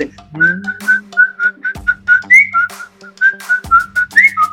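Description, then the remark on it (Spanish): A bonesetter whistles a healing prayer instead of words while rubbing the affected body part: a steady, melodic series of short notes, fairly loud, with a low hum and faint thumps underneath, like a whistled chant repeating in an even rhythm. “El, el huesero también cura rezando, pero reza chiflando. Él soba la parte afectada y no reza con palabras, sino con chiflidos”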